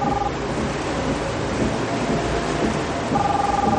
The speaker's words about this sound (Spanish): Comienza a llover y sube la ventanilla activando el limpiaparabrisas.